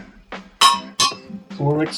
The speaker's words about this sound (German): Ja, auf das stoßen wir an, oder? Genau. Ja, Zum Wohl.